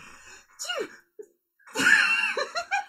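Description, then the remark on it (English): A single sneeze: a short, sharp intake of breath, a brief pause, then a loud, voiced burst that trails off into a couple of small breathy aftersounds. “Hold on, let me sneeze.”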